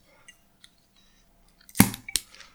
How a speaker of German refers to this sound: Aber das weiß ich erst, wenn ich es einmal aufgemacht habe. Na, dann machen wir unsere Biere doch mal auf.